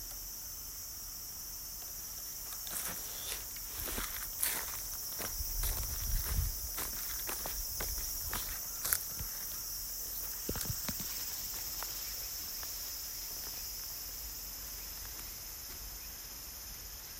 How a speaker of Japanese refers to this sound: では虫の声をしばらくお聞きください